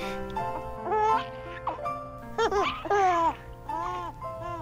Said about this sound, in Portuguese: Seu choro não, não era de desconforto, mas parecia de felicidade.